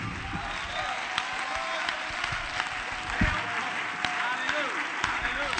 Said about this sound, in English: Let's clap our hands and give him praise.